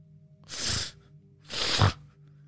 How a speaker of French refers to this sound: Et alors que tu restes interdite devant la scène, tu vas entendre un reniflement.